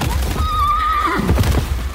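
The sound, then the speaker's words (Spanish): A horse whinnies loudly, a long quavering neigh that trails off, followed by low snorting and shuffling movement. “Treinta hermosos caballos fueron cayendo uno a uno.”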